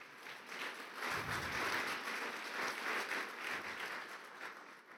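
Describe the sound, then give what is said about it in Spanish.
An audience breaks into steady applause for the men taking part in a 21-day intercession, a dense wash of many hands clapping that swells and holds for several seconds, with no one speaking over it. “Un aplauso para estos guerreros intercesores.”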